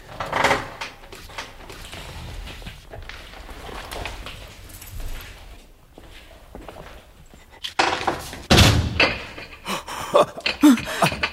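A rusted door creaks and scrapes open with wooden knocks. After a quieter stretch it bangs shut hard with a sharp slam near the end and is bolted from outside, followed by a few clattering thuds.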